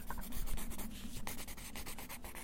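A pencil making a rough sketch on paper: quick, dry scratching strokes repeat in an uneven rhythm, with short rubbing sweeps between them, steady and moderately loud with no voices.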